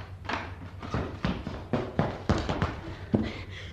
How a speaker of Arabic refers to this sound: وبينما الاميره في مخدعها اذ سمعت ضجة وجلبة وأصواتا مقتربة ووقع أقدام تسرع إليها وفتح الباب عليها